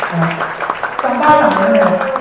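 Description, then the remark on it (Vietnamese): A round of audience applause for the people who want to go up on stage, steady clapping from a crowd with voices calling out over it, fairly loud and continuous for a couple of seconds. “hãy dành một tràng pháo tay cho những người muốn lên đài mình”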